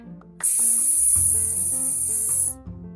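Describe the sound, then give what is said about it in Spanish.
A long, loud, steady "sss" hiss, the sound of the letter S, held for about two seconds, then cut off, with soft background music playing underneath throughout. “El día de hoy vamos a ver el sonido de la S”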